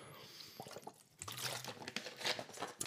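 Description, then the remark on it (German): A quick sip of water with small wet slurping and swallowing sounds, soft liquid clicks and drips, and a brief low gulp in the middle. “Jetzt muss ich noch mal einen kurzen Schluck Wasser trinken und dann möchte ich hier diese Auflösung bringen.”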